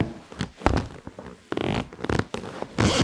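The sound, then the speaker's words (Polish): Irregular creaks and squeaks of leather rubbing and stretching as someone rolls about on a leather couch at home, pulled away from the wall, in a rapid series of short, loud bursts with no talking. “Mam nagranie jakieś skórzenie kanapy u mnie w domu.”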